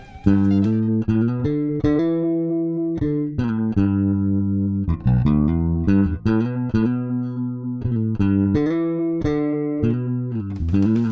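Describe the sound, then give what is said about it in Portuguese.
A bass guitar played through a chorus effect, which doubles and slightly detunes the signal, plays a loud, steady line of sustained notes with a shimmering, slightly doubled tone, heard alone with no talking. “Chorus um efeito que duplica e desafina levemente o sinal.”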